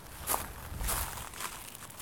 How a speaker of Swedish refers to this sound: Jag går några steg närmare för att kika lite.